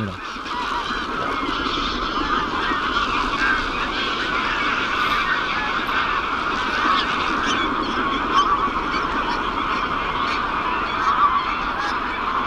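A large flock of hundreds of big geese, winter migrants to southern Europe, honks continuously as they rise. It is a dense overlapping chorus of calls that fills the whole stretch at steady, fairly loud volume, with no voices.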